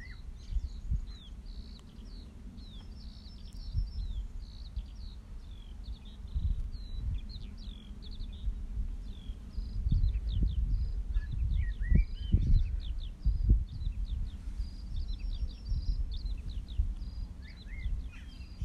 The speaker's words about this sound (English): I'm just taking a breather next to a field. Listening to a skylark.